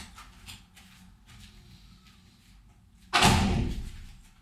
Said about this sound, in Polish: To drzwi tylko zamknij.